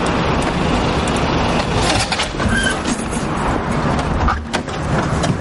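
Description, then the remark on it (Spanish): A red car's engine rumbles steadily, a low continuous drone with slight surges as the driver puts it in first gear and the car creeps forward very slowly, no voices present. “se pone el volante del coche rojo de Vicente. Mete la primera marcha y avanza muy lentamente.”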